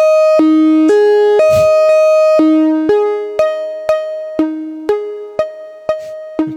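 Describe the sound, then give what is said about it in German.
A modular synthesizer plays a repeating step sequence of tones, sustained at first, then an envelope shapes each note into a plucky attack that fades before the next; steady rhythm, clear, no voices. “greifen das jetzt ab, haben jetzt genau die gleiche Tonfolge. Ist nicht mehr ganz so anstrengend wie eben.”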